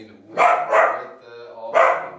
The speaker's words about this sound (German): Ich weiss nicht, wie kann so ein kleiner Hund so laut sein? So, jetzt ist fertig. Fertig mit Bellen. Ja, fertig.